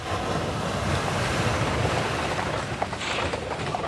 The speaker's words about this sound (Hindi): अच्छा इधर आओ ये देखो भवन के झरोके से सागर की उछाल खाती लहरें दिखाई देती है